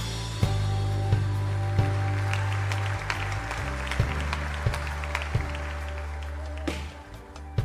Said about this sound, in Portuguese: Aplauda aquele que é santo e governa plenamente.